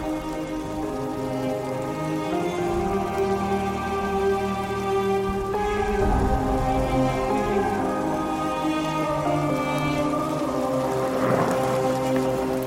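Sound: torrential rain pouring down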